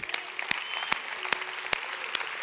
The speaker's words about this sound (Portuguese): Quem pode dar um aplauso ao Senhor Jesus nessa noite? Quem pode dar um aplauso para o Senhor Jesus nessa noite?